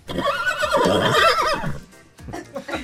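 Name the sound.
horse neighing sound effect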